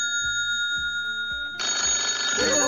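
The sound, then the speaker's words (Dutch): A telephone rings with steady electronic tones over a rhythmic low pulse, and halfway through a louder, fuller burst of sound swells in beneath the ringing. “telefoon, telefoon, telefoon, telefoon, telefoon.”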